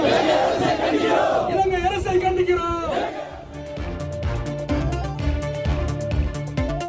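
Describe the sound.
Fishermen staging a sit-in protest near Rameswaram railway station, India, demanding the release of fishermen arrested by the Sri Lankan government, chant slogans in unison, loud rising and falling voices for about three seconds, then a rumbling mass of overlapping shouts and crowd noise continues.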